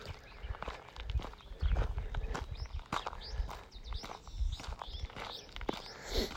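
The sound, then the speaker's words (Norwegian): Running footsteps pound along a rough, poor-quality road in a quick, steady rhythm, each footfall a crunchy thud on loose ground, fairly loud throughout with no talking. “Og det å springe fort på, det er i hvert fall ikke så lett.”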